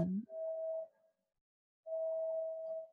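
A siren sounds in the middle of Manhattan, two long steady blasts at one pitch, separated by a brief pause of silence. It is moderately loud and clear, with no talking over it.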